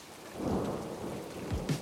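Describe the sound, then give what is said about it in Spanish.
Steady rain falls in a dense, hissing wash while driving in a car on a motorway at the end of summer, with low rumbling swells underneath like thunder. It's fairly quiet and continuous, with no voices present. “Sigue lloviendo. Se acabó el verano.”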